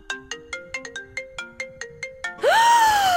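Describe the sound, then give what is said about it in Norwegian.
A phone ringtone plays a quick melody of about a dozen plucked, bell-like notes, then ends on a sustained rising-and-falling electronic tone, clear with no talking. “Får du altfor mange telefoner hver dag? Ja. Blir du nervøs når du hører den lyden her?”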